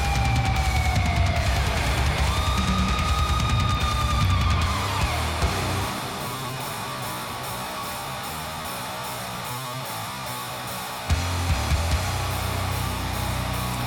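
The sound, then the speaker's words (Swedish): A slow, raw crust punk track with a heavy distorted guitar riff grinding along loudly, with high squealing feedback tones sliding through the first few seconds and no vocals. “Okej, det var ett ganska trevligt riff. Det måste jag ge dem. Långsam käng, okej.”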